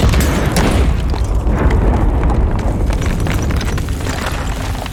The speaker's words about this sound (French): Tu sens qu'il y a une grosse déflagration et puis en même temps il y a ce bruit de, euh, comme, une boîte de conserve creuse qui vient d'exploser avec un, bruit assez euh, assourdissant, comme un bruit sous vide d'une explosion assez bizarre.